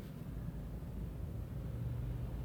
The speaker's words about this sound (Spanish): Sí oigo un poco de ruido exterior, porque ahora estoy en una avenida y hay mucho tráfico, pero no tiene nada que ver.